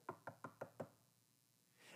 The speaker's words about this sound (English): Now imagine for a second that there's a knock on your door